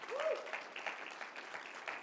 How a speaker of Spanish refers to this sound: Yo creo que ese aplauso no salió para el techo, hermanos. Dele un aplauso más fuerte al Señor. Aleluya.